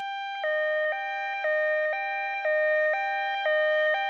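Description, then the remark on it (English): A loud two-tone electronic siren alternates rapidly between a higher and lower pitch, switching about every half second in a steady hee-haw pattern, with no other sounds. “we need like a siren for every time somebody starts to hint towards beginning a podcast network from zero.”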